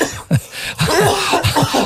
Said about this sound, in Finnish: Saman tien kun alettiin puhumaan veroista, niin mua alkoi yskittämään. Mm. en tiedä mistä se johtuu.